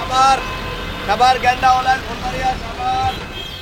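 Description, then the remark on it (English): Busy city street traffic in Bangladesh, with rickshaws, cars, many of them fancy, and buses. A steady low rumble of engines with frequent short horn beeps and honks overlapping one another, constant throughout. “You hear rickshaws and cars. Buses are everywhere, there's a lot of traffic, a lot of fancy cars on the road as well”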